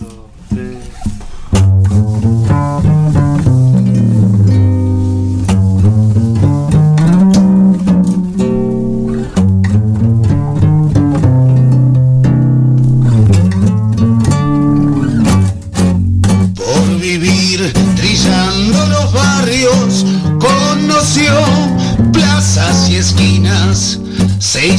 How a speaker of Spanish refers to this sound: Eh, tengo sonando un tangazo de fondo que lo voy a poner, lo voy a poner.